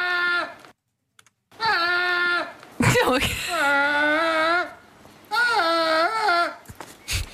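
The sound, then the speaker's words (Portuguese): A goat lets out three loud, drawn-out screams that sound almost human, each a wavering, strained wail, with someone briefly laughing between them. “Isso é uma cabra, não é? É uma cabra, é uma cabra.”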